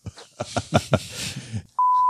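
A man talks in short bursts, then a loud, steady censor bleep cuts in abruptly and holds a single pure tone through the end, replacing his voice.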